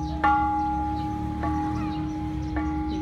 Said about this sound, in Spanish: tradición es tocar la campana, nueve toquillos o tu edad